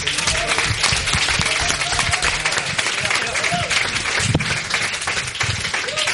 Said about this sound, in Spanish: Un aplauso grande